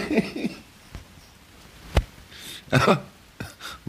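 coughing

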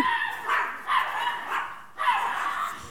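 dogs barking

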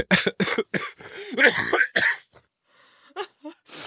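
coughing fit

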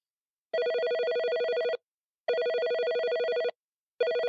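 telephone ringing

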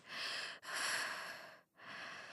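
heavy breathing

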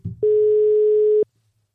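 telephone ringing tone

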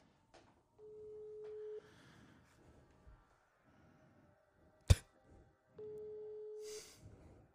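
telephone ringing tone

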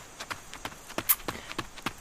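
running footsteps

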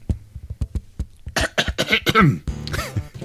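cough

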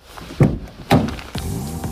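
car door being opened

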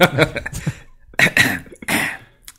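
throat clearing

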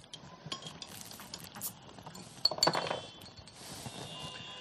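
glasses clinking

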